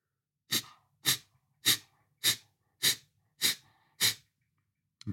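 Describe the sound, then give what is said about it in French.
Seven sharp, forceful nasal exhalations of kapalabhati breathing, each pushed out by engaging the belly, evenly spaced about every half second, each a brief breathy hiss with quiet, relaxed pauses between as air passively flows back in, then an eighth begins at the end. “Donc des expirations très volontaires et un relâchement entre chaque.”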